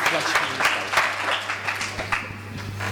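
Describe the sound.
A crowd claps steadily for a few seconds, a dense patter of many hands filling the room, with faint murmuring voices underneath.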